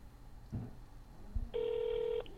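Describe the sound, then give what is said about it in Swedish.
A few soft clicks and a thump, then a single steady electronic ring tone from an outgoing phone call to the Swedish embassy, lasting under a second, heard through the line with no talking. “Så jag ringer ambassaden.”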